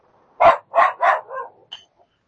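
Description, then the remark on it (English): A tiny female dog barks four times in a quick, uneven series, sharp, followed by a short high yip and a faint whimper as it trails off. “Hey, you may have noticed there's a dog present.”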